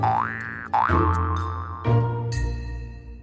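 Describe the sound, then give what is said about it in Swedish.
A springy cartoon boing effect, its pitch wobbling up and then settling, repeated in a few quick bouncy bursts that ring out loud with no talking over them. “Boink, studs.”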